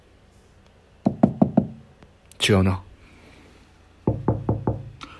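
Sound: knocking on a door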